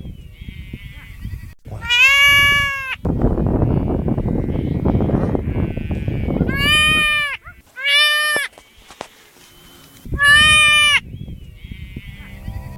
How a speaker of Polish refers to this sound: Zdeformowana przez naturę owca wydaje dziwne dźwięki, które możecie teraz posłuchać.